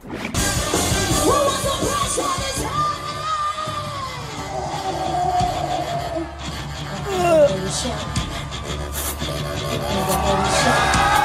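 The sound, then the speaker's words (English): A crowd cheers and shouts in a steady, dense roar that swells briefly partway through, with scattered yells and voices mixed into the noise. “Oh, that's the crowd cheering as she oh, does it's it.”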